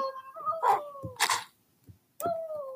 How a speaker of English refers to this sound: Okay, dog, stop barking.